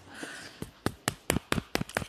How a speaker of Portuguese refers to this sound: Isso é eu batendo palma, uma salva de palmas para mim.